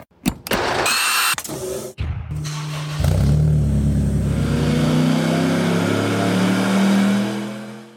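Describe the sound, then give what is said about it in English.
A Mitsubishi Evo X drag race car built by English Racing revs hard, with a few sharp blips and crackles before a sustained, rising roar that climbs steadily and holds loud before easing off at the end. “the English racing built Evo 10 behind me currently holds the world record with an 827 at 174 mile an hour.”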